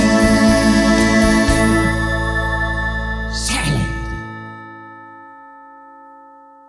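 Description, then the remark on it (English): A bright, layered bell chime rings out with a brief rushing swell near the end, then its tones slowly fade and linger for a couple of seconds into silence. “wow, that, that's a long bell sound at the end. I've never really noticed how long it lingers.”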